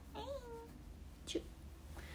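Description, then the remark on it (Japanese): A cat that has just fallen gives a faint, drawn-out meow, followed a moment later by a softer second mew, with a low background hum and no one speaking. “なんかさあごめんごめんごめん猫落ちちゃったおいで”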